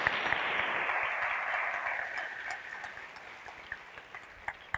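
An audience applauds a singer and musician of a Big Band Jazz after his testimony, with dense, steady clapping that gradually thins and fades over a few seconds, leaving scattered individual claps at the end.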